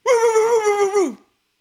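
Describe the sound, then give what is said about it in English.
A person's voice imitates Gordy barking with one drawn-out, howling yowl, loud, holding steady for about a second before sliding down in pitch and stopping abruptly. “can you do an impression of Gordy barking?”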